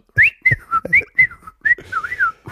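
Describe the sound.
A whistler whistles a lively melody, short bright notes sliding and bending in pitch, ending with a longer warbling phrase, with no talking.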